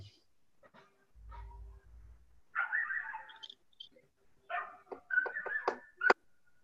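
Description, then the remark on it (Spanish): A street dog barks outdoors in two bursts of several sharp, fairly loud barks, the second run quicker and more insistent, with a low rumble briefly underneath. “No, acá está ladrando el de la calle.”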